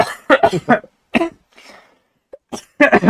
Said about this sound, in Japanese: あ、ミスった。今、今思いっきり咳してたんですけど、ズームだけミュートにしといて今放送上バリバリ乗ってました。